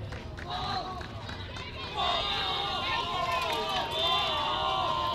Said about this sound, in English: as you can hear these fans, they, they I guess they think that's awesome or something. They I guess they're trying to distract Savannah